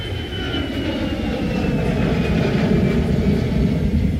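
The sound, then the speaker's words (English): A steady, low engine roar rumbles continuously, like an airplane passing overhead, with a faint whining tone drifting slowly downward above the broad rumble; no voices are present. “there's a plane flying overhead.”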